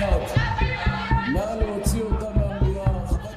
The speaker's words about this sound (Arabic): تحت قبة الكنيست لم تهدأ الكاميرا وهي تنقل صراخ واحتجاجات أعضاء حزب الليكود والتيارات الحريدية والصهيونية أثناء خطاب رئيس الوزراء الإسرائيلي الجديد نفتالي بنت.